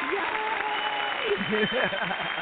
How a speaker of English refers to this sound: We had to give some applause for our, our one mm-hmm. year coming up and our first erotica show